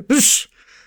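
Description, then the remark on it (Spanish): A voice mimics a dog's sneeze: one quick burst that starts with a short voiced catch and bursts into a hissy, breathy snort, trailing off into a faint airy tail. “Me decía una amiga recién, yo soy de las que le dicen salud a su perro cuando estornuda.”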